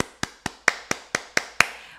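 A steady run of seven sharp hand claps, given as applause to the listener, evenly spaced about a quarter second apart, each a crisp bright smack with a short ringing tail, with no one talking.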